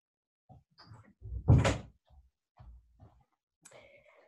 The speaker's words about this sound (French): je, je, vais juste fermer la porte, j'arrive.